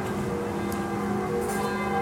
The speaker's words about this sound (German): Oh, wir können ein bisschen Glocken aufnehmen.